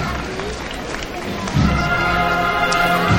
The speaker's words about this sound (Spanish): Sí, y ahora mismo escuchamos palmas, pero seguro que el Cristo no, está arriba del todo.